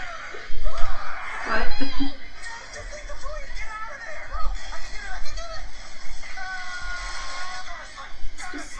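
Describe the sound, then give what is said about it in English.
Chaotic, overlapping screaming fills the scene, with loud shrieks early on and frantic yelling continuing throughout, mixed with voices, laughter and a busy, noisy background. “and the whole bunch of screaming.”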